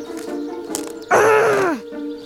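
A short, loud growl from a woman's voice, roughly two-thirds of a second long, rough and throaty, sliding down in pitch before cutting off, with a steady background hum around it.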